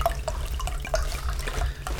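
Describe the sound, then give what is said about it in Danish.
Water pours into a glass, a steady liquid trickle with bright little gurgles and drips ringing over a low background hum, no voices. “Ja, ja, det er utrolig underholdende, at du, at du bare hælder noget vand op.”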